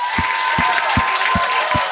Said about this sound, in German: Auf drei machen wir richtig Attacke, okay? So laut klatschen, wie wir können. Wir geben Gott die Ehre, okay?